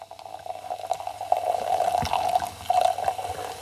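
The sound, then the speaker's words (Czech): Liquid from a just-opened bottle is poured steadily into a glass, a continuous splashing trickle with a faint ringing tone, running for a few seconds with no voices. “tak připomenu, zatímco budeme nalévat”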